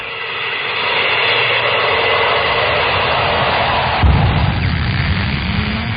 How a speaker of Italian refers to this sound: Oh. l'albero è caduto sulla terra, proprio sulla testa di quel povero uomo che passava.